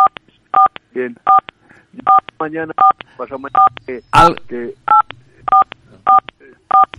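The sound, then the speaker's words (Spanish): A rapid series of short electronic telephone keypad tones, evenly spaced, beeping over and between people talking in Spanish. “¿Hay algo con tu teléfono?”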